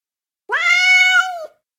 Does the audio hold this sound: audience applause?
no